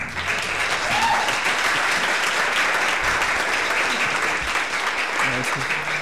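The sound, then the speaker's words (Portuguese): Steady, dense applause from an audience, a continuous wash of many hands clapping at an even loudness for several seconds, with faint voices mixed in. “Essas palminhas ganham sempre.”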